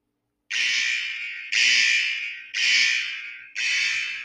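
A loud, harsh alarm blares in four evenly spaced pulses, each about a second long and fading slightly before the next, with no voices, used as a spoiler warning.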